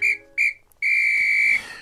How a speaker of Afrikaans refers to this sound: Later die middag, toe dit warm en windstil is, blaas wyse ou uil wat in beheer is van die sportdag, sy fluitjie.